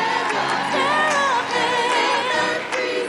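An audience applauds and cheers loudly and steadily for about three seconds, a dense wash of clapping mixed with rising whoops and shouting voices.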